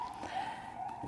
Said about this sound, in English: Man, y'all can hear the sirens may be outside my window.